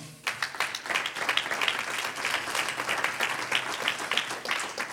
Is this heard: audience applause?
yes